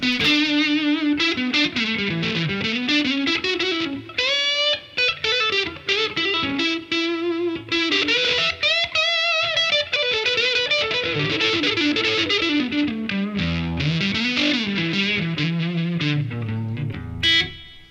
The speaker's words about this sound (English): And then I've got my super the super badass Variac fuzz.